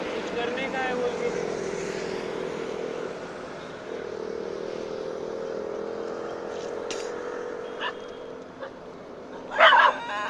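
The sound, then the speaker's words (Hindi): A dog that is following someone around barks in a short, sharp burst near the end, over a steady engine-like hum, with fainter yips earlier on. No one speaks. “कुत्ता ढूंढते हुए आ ही रहा है मेरे को पीछे पीछे”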